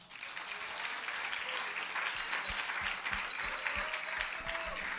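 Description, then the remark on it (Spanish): A church audience breaks into sustained applause for God during an altar call, dense overlapping claps forming a steady wash of noise that holds fairly loud throughout, with no one speaking over it. “Den un aplauso a Dios.”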